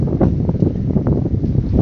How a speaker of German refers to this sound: Wind. Siehst du mein Problem? Ja. Und wenn ich so mache, ist dann nicht mehr so. Nee, bringt eigentlich gar nichts. Wenn, dann müssten wir uns so hinstellen, um den Wind abzuschirmen.